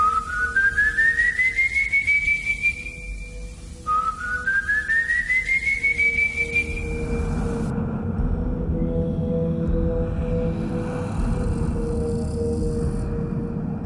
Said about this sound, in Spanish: Dicen que quien escucha en los llanos esta aparente e inocente melodía es que la muerte se le acerca. Es sin duda la historia que más temen en ese lugar y también buena parte, como digo, de los venezolanos. Todos tienen miedo a escuchar ese silbido.